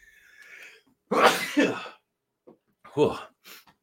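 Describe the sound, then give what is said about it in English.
A loud sneeze bursts out in two quick bursts, with a faint breathy intake before it and a softer follow-up sound and sniff afterward. “Um, I, I think it's sorry, I'm gonna sneeze.”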